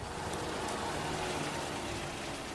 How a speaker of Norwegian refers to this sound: I Bergen regner det. Selvsagt regner det i Bergen.